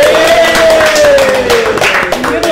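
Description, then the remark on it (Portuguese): A dense, continuous round of clapping to thank the firm Absoluta Filmes, loud and steady for a few seconds, with a thin sustained tone sliding slowly downward over the hands. “E a gente queria uma salva de palmas para agradecer a Absoluta Filmes.”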